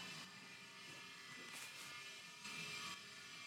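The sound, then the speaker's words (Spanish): A power drill whirs faintly, a steady mechanical buzz that swells in two short bursts partway through, with no voices. “¿Se escuchaba un taladro?”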